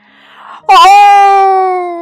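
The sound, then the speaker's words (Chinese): A Tyrannosaurus rex roar over the calm sea at night bursts in after a faint low murmur: a loud, tonal, wailing cry that wavers briefly, then holds a steady pitch for over a second before easing slightly. “夜晚的大海很平静，霸王龙的吼声传得很远很远。”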